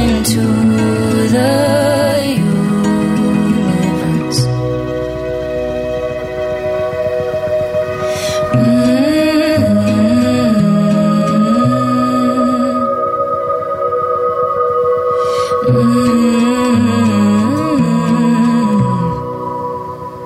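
A small live trio from Montreal plays a song in a live session, with sustained droning chords and a wavering melodic line, steady and fairly loud throughout, instrumental with no singing, fading slightly at the very end.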